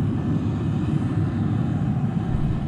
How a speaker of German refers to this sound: Sie hören es im Hintergrund. The flight is ready to take off. Und zwar der Silvesterrundflug 2019 auf 2020. Insgesamt fliegen in der Silvesternacht um Mitternacht drei Flugzeuge über Wien.